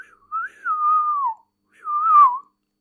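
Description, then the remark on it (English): Someone whistles two clear, gliding birdlike notes, a longer falling one followed by a shorter one after a pause, fairly loud with no talking. “He'll whistle, and it sounds exactly like a bird, and then he'll make his appearance.”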